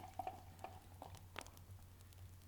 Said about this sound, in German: Und wir müssen jetzt erstmal einschenken. Wie gesagt, das Aufmachen haben wir verkackt.